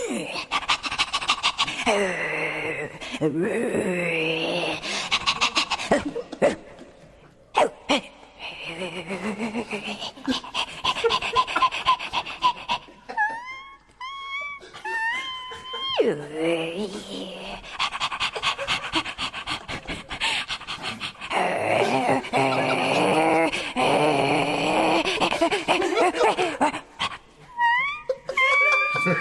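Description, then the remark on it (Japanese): A person does an impression of a dog that can't quite bark, with heavy rhythmic panting, strained whines and moaning yelps over about half a minute, broken by a few brief pauses. “モノマネ犬。なかなか泣けない犬をやります。”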